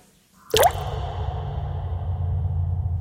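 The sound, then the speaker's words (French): A single loud water drip lands with a sharp plop in a reverberant space in old public shower baths in Lyon, leaving a steady low hum and faint ringing tone afterward. “une polyphonie réalisée par l'Alca dans les derniers bains-douches de Lyon.”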